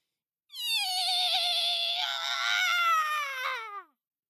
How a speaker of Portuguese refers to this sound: Além do mais, o meu ri oh, é muito fraquinho. Ah, mas vou tentar. O burrico se aprumou, encheu os pulmões e soltou mais alto o rim-ró que já tinha dado na vida.